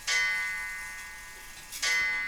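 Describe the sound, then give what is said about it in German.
An antique wall clock dating from 1910 sounds two bright, metallic strikes at four o'clock, about a second and a half apart, each ringing on and slowly fading, clear with no voices. “Die Wanduhr, die mein Vater, die ist von 1910, die Wanduhr”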